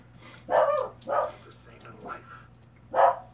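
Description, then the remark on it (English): A dog named Mouse barks several times in short, separated bursts, moderately loud, with a steady low hum underneath. “Mouse, shut up.”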